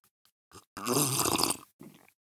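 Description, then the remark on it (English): A long, noisy slurp of a drink, a wet sucking rush lasting under a second, bracketed by a couple of short, softer sips or breaths. No one speaks. “Uh, the gratuitous slurp.”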